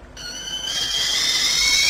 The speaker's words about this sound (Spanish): ¿Eh? La tetera. Me ha estremecido su sonido.